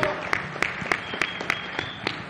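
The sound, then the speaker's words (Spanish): An audience in Mexico applauding at an event with author Alessandro Barbero: a dense, steady wash of clapping with sharper claps landing in a regular rhythm, roughly three per second, moderately loud and with no voices. “Así que por favor denle un fuertísimo aplauso a todos los que nos ven en redes.”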